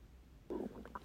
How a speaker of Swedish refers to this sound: Oj. Gud vad din mage kurrar, jag är också jättehungrig. Ja, och jag känner att jag har ju lagt min mobil på min mage så det här blir nog ett kurrande avsnitt.